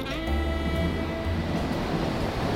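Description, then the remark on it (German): A U-Bahn subway train rumbles steadily while a high, whining metallic tone rings out at first and then fades as the train slows into a station. No one speaks. “stieg ich aus der U-Bahn und begab mich in Richtung Kulturbrauerei.”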